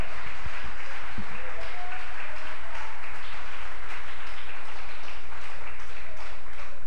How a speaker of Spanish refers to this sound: Ofrenda de palmas al Señor por su palabra.